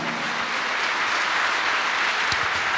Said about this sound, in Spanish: ¿Cuánto dan un aplauso a Dios por eso, amado hermano?